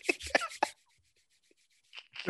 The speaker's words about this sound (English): Birdman hand rub. Y'all heard it.